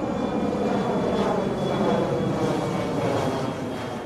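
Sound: airplane engine flying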